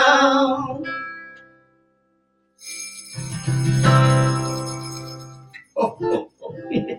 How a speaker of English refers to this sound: And the jingle bells were the cherry on top.